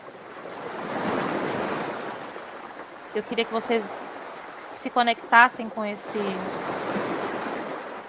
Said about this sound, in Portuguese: barulhinho das ondas né, que vocês pudessem trazer memórias bacanas de um dia na praia.